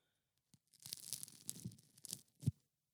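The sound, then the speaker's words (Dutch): Crusty sourdough bread being broken apart by hand, a burst of dry crackling and tearing with several sharp crunchy snaps, ending in one loud crack; no voices. “Zo klinkt dus het brood van meneer Leffers,”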